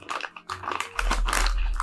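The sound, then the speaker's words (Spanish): An Oxinova powder sachet crinkles as it is handled, a dense run of crisp, papery crackles and rustles lasting the whole moment, with a low steady hum rising underneath midway. “Es un sobre como son uno de estos sobres de sopas mayo, digamos, Maggi.”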